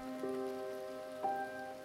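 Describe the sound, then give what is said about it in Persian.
Heavy rain falls continuously, pounding on the ground beneath a sustained droning tone, with a couple of brief splashy thumps standing out. The whole scene is fairly soft and even, with no voices. “بارون که داشت میکوبید رو زمین”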